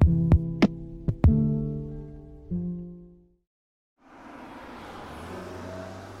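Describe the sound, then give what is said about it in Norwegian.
A row of cars arrives on a sunny autumn day at a small place in Vestlandet, Norway, idling with a low rumbling hum and a few sharp clunks as they stop a short way from a remote fish factory, then the engines cut off into a moment of silence before a steady outdoor hiss takes over. “En rekke biler kommer kjørende. De stopper et lite stykke unna målet, som er en avsidesliggende fiskefabrikk.”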